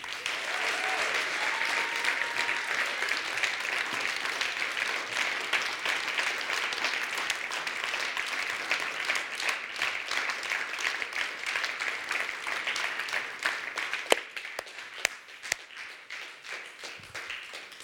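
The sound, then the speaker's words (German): An audience, counted in on three, claps for Jesus in steady sustained applause, a dense wash of many hands for about fourteen seconds, then it thins out to a few scattered, sharper claps as it dies away. “So lasst es auf drei einfach für ihn klatschen und ihm einen Applaus geben, weil der König von den Königen ist im Raum.”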